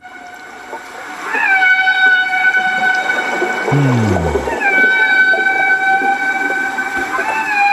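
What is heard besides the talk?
dolphin calls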